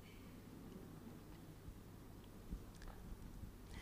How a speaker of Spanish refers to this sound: Tú tienes sed y yo también. Y me voy a, a tomar un traguito.